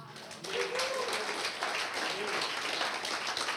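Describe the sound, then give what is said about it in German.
A church audience breaks into sustained applause for God during a sermon, many hands clapping in a dense, steady wash that swells quickly and holds, with a few faint voices calling out beneath it. “Wollen wir Gott einmal einen Applaus geben?”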